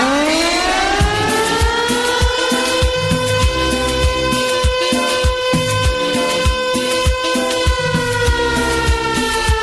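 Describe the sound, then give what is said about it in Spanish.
A loud morning alarm siren, the alborada, opens a Colombian radio broadcast on 20 July, Colombia's Independence Day. It winds up in pitch and then holds a steady, sustained wail, with a rhythmic low thumping pulsing underneath throughout. No one speaks. “Aquí estamos abriendo, amables oyentes con la alarma, con la alborada, que nos indica que hoy es 20 de julio, día festivo miércoles, día de la independencia de Colombia.”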